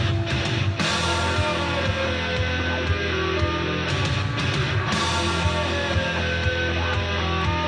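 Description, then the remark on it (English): A heavily distorted electric bass guitar plays a loud, thick opening riff, its gritty sustained notes ringing continuously for several seconds with no voices over it. “that opening riff was a guitar solo. And then about a year ago, my older brother tells me that that's actually”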